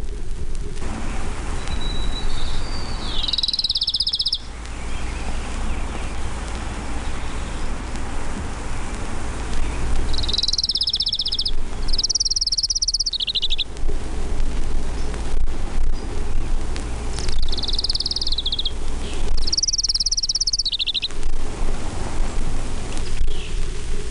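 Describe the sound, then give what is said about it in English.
An orange-crowned warbler sings short, high, buzzy trills, repeated about four times at intervals of several seconds over a steady hiss of rain-like background noise. “orange-crowned warbler.”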